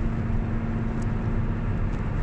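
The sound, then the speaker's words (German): Steady low rumble of a car cabin while driving, a continuous droning hum with a faint tonal whine and road noise, no voices. “Natürlich ist, ist der Sound im Auto jetzt nicht so optimal, aber stell dir vor, du sitzt einfach neben mir im Auto.”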